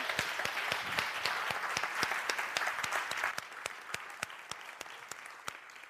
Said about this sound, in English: I think we should clap for all the kids and how they led worship today.